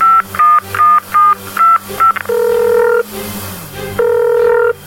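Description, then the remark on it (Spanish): Telephone dialing tones of an incoming call: a rapid run of short, beeping keypad tones, then two longer steady electronic tones separated by a brief gap, loud, with no one speaking. “Oh my god, ese Erasmo marcándome otra vez. Tengo que cambiar de número de teléfono ya.”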